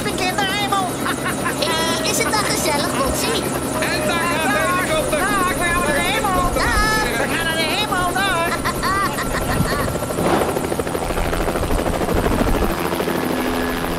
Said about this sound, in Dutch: De helikopter stijgt nu op.